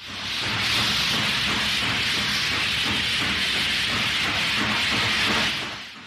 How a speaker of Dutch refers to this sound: het bedrijf waar hij voor werkte kocht op een bepaald ogenblik een boor aan die werd aangedreven door stoom